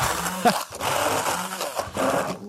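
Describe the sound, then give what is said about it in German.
An old hand blender whirs, its motor drone loud and continuous, the pitch wavering and briefly dipping as it shreds and mixes a thick whitish mash. “Ich benutze einfach so einen alten, einfachen Pürierstab.”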